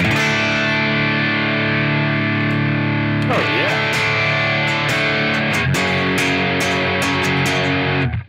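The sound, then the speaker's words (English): Electric guitar played through an amp with a clean tone, loud ringing chords sustained and changed a couple of times, strummed with no one talking over it. “So, so this is my um, this is my amp tone before before kicking on.”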